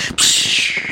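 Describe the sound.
A voice imitates heart palpitations with a fairly loud, breathy hiss held for most of a second after a brief catch, with faint low pulses underneath.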